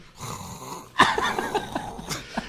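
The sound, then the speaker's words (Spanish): A person imitates snoring with a loud, rough, rattling throat sound that surges suddenly after a quieter breathy stretch, then sputters on in uneven bursts, alone. “Ah, vato, está en gacho roncar, yo soy ronco.”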